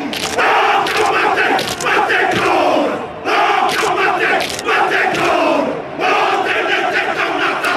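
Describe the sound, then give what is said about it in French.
A haka war chant by 15 New Zealand players dressed in black on the pitch before a match: many voices shouting loud, rhythmic phrases together, with foot stomps and chest slaps punctuating the chant, in three surging waves separated by brief pauses. “Face à nous, 15 gaillards tout de noir vêtus, l'un d'eux se met à crier, les autres le rejoignent, tapent des pieds, tirent la langue et se frappent la poitrine.”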